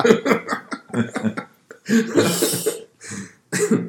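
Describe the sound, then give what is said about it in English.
A bulldog in a house coughs and hacks in a series of rough, wheezy bursts, with brief pauses between fits and a longer, harsher spell near the end. “the official baseline mascot was just coughing on the log.”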